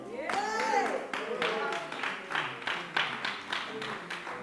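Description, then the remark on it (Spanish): A voice trails off as scattered clapping from a small audience, only women clapping, starts up: a moderate, uneven patter of hand claps that keeps going steadily, without building into a roar. “Veo mujeres nada más aplaudiendo.”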